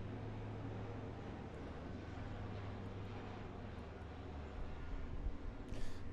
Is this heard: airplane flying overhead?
yes